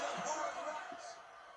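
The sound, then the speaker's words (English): A steady, dense roar of cheering and babble from a wrestling crowd, with a couple of brief high-pitched whistles cutting through above the din. “You can hear some crowds in the background whistling and making different noises and whatnot.”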